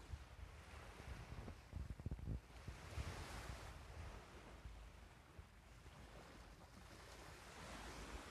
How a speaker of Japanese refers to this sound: はい聞こえますでしょうか波の音ちょっと静かにしてみますね